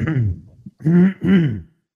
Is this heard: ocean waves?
no